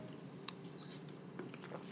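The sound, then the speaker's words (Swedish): Someone slurps a drink, with soft wet mouth sounds and a few small sips scattered over a couple of seconds. No one is talking. “Ah, jag dricker mm. om du undrar varför jag håller på.”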